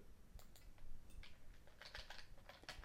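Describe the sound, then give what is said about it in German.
Rapid, irregular clicks of typing on a computer keyboard attached to a PC while someone searches for something, with short bursts of keystrokes and brief pauses. No one speaks. “Ich habe jetzt zum Glück die Tastatur hier dran. Ich gucke mal eben, ob ich das finde.”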